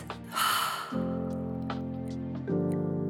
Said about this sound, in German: Zeit für eine Pause. Atmen Sie tief ein und wieder aus.